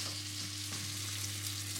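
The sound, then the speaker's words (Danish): Fish sizzles steadily as it fries and browns in a hot pan, a continuous crackling hiss with a low, constant hum underneath. No one speaks, and the frying sounds even throughout. “Får lidt farve ja, efter stegningen.”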